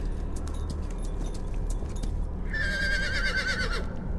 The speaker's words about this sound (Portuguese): Aquele cavalo lá, olha que o nosso amigo Druida está trazendo.